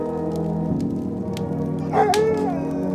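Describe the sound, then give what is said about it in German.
A single short dog bark or yelp rises out of a steady droning hum, with the soft crackling patter of an open fire in a tiled stove in a living room underneath, clear against the constant background. “Ein Bellen löst deinen Blick schon fast unfreiwillig vom Feuer.”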